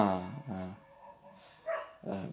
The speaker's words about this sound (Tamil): பக்கத்து வீட்டு நாய் குலைக்குது கண்டுக்காதீங்க ஒரு நாய் சைலண்ட்டாக இரு